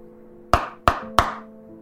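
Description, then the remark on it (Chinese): Three sharp knocks on a bedroom door, at about the face height of someone lying in bed, evenly spaced in a quick, deliberate rhythm, each a loud hard rap with a brief ring-off over a faint steady hum. “接着，他就听见这卧室门在跟他脸差不多的高度被敲响了。”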